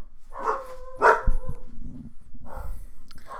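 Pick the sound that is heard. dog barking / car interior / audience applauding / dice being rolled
dog barking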